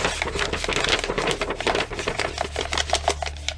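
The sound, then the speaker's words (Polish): Steady crackling and rustling as a sheet of paper is crumpled, with dense irregular snaps running continuously for a few seconds and no voices. “Że brakuje miejsca i ta kartka, tak, ta karteczka zaczyna nam się zwijać.”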